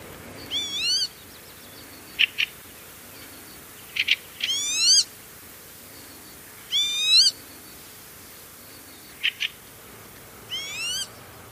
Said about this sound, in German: Der Kibitz gehört zur Familie der Regenpfeifer